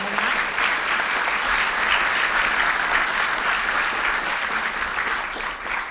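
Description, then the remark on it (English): Sustained applause from a sizable audience for a team of presenters, a dense, even wash of clapping that holds steady for several seconds before easing slightly at the end. “Let's give this team another round of applause.”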